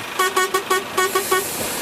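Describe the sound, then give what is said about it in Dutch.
A car horn honks in a wedding procession in a quick rhythmic series of about seven short toots, loud, over a steady background of street noise. “Mag u straks ook toeteren in een trouwstoet?”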